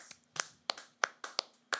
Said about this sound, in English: Can we get a clap